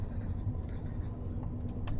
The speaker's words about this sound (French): Dans son enclos verger, le crayon heurte le papier. L'index pousse, broie le stylo, halète et pousse le tracé. Et le dessin progresse à la petite vitesse du muscle.